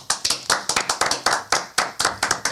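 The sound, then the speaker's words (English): Crisp hand clapping from a small group in a studio, fairly loud, with quick, slightly uneven claps overlapping in a short burst of applause. “Let's give her a hand”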